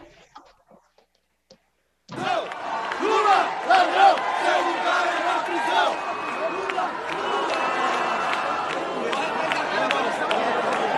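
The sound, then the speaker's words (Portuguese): After a brief quiet start, a loud crowd in Congress, at the ceremony promulgating the pension reform, erupts into commotion between PT and Republicanos members, with many overlapping voices shouting and arguing, sustained and chaotic until the end. “o cerimonial né, que teve ali em relação à promulgação da reforma da Previdência no Congresso ontem, executivo, legislativo, o ministro Barroso também estava lá, mas também tinha confusão né, de, de petistas e republicanos.”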